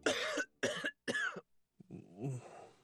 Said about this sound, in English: The nighttime sniffling, sneezing, coughing, sore throat, stuffy head